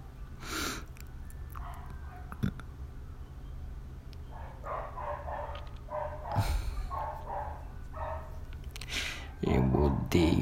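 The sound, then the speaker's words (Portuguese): Several neighborhood dogs bark, a scattered series of short yaps and woofs, while a person talks over them. “Tipo, um cachorro deve estar tá latindo porque apareceu um filho da puta em frente de uma casa.”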